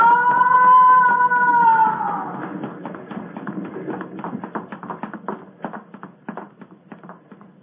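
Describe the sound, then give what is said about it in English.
A man is pushed down a ship's companionway stairs during a struggle at the rail: a long, loud wailing tone sags in pitch, then a rapid, uneven series of thuds and knocks clatters on, gradually thinning out. “One of them has pushed the other down the companionway.”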